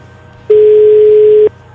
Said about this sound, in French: Ça sonne. C'est une, c'est une très belle sonnerie. Une sonnerie de téléphone. Pour ceux qui auraient pas connu. Allez, réponds.